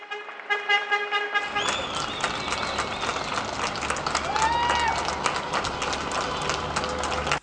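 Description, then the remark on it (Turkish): Steady, dense clapping from many people at apartment windows and balconies in Turkey at 9 p.m., thanking doctors, nurses and health workers during the coronavirus outbreak. Scattered whistles and a few shouts rise over it, continuing loudly throughout after a brief tonal sound at the start. “Yine saatler 21'i gösterdiğinde alkış yükseldi her pencereden.”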